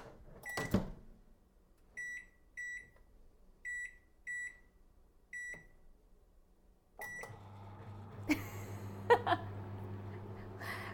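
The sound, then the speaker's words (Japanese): A microwave oven being set and started to heat at 600 watts for 3 minutes: a door clunk, a series of short keypad beeps, then another clunk and a steady low electrical hum of heating, with no talking. “今から電子レンジで加熱します何ワットで何分加熱するでしょうか音を聞いて考えてください”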